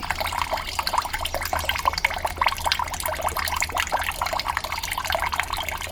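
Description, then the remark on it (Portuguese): Steady running water splashes continuously while a yam is scrubbed with a small brush to remove the soil, moderately loud, with no one speaking. “a escovinha vai ajudar bastante neste trabalho. Assim vamos eliminar a sujeira mais facilmente.”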